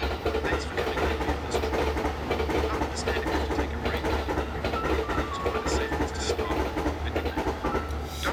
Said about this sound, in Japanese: えー、昼間なので非常に電車の音が入って邪魔をしてくる非常に困りますね